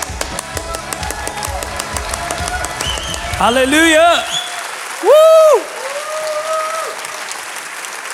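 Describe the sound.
A standing church audience in Zürich breaks into sustained, lively applause mixed with cheers and whoops, welcoming a guest onto the stage, while voices shout out over the clapping and one loud call rises above the noise.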